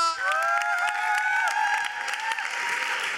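An audience applauds for everyone downstairs at the Unplugged, with steady, dense clapping mixed with whoops and a few high cheering voices, loud and sustained throughout.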